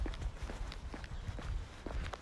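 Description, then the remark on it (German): Brisk footsteps of a person walking along a street on a somewhat cold day fall in a steady, quick rhythm, fairly soft, over a constant low outdoor rumble like wind or traffic. “Ich weiß gar nicht, ob ihr hört, wie ich walke.”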